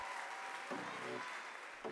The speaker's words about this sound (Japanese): 拍手ありがとうございました